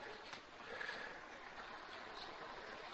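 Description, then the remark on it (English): A steady, bubbling hiss of grape juice and wine at a rolling boil in pots, fairly loud, with a continuous churning texture and no voices; the grape juice is at 210 degrees and the wine at 196 degrees. “Okay, the boil is even stronger now.”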